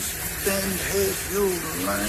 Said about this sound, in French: Ça, ça réveille pas le matin sous la douche. Ah, le bruit.